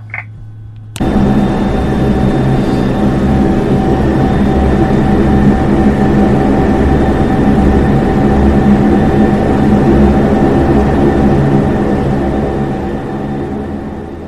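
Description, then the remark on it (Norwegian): A loud, steady roar of aircraft engines fills the cabin during takeoff on a flight to Røros, kicking in abruptly after a quieter hum and holding a constant droning intensity with tonal whine throughout, tapering slightly near the end. “det var ikke den lange takeoff-runden vi hadde?”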